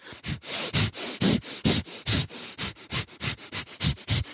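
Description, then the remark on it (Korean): Someone mimics a wild boar snorting, a rapid string of about fifteen short, breathy nasal snorts in a steady, quick rhythm, fairly loud, with no talking. “대관령에 이제 그 걸어 올라가는 길 하다가 애들끼리 장난치다가 막 이렇게 딱 숨었는데 멧돼지 맞을 거예요. 왜냐면 사람 소리는 아니었거든요.”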